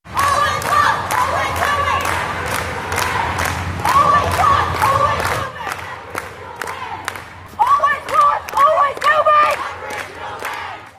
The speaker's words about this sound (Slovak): Kým časť Austrálie oslavovala, domorodí Austrálčania organizovali po celej krajine pochody, ktoré nazývali Deň prežitia a Deň invázie. Takto to znelo ulicami mesta Adelaide.